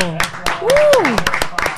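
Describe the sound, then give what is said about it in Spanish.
A few scattered, sharp claps at an uneven pace welcoming guests on the radio programme Conozcamos la Salsa, while a voice lets out a rising and falling whoop partway through, with some talking underneath. “¡Aplauso!”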